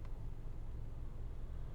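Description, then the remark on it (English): A dump truck that can't turn idles in traffic, its engine a steady, low rumble that drones on evenly and quietly throughout, with no voices over it. “Yeah, we're stuck behind a dump truck that can't turn.”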